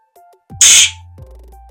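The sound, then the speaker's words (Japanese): A single Japanese tsukkomi (comedy retort) sound effect: a sharp, bright smack-like burst over a low electronic tone, lasting a fraction of a second, played alone with no voices. “ねえねえ、これツッコミの音やねんて。”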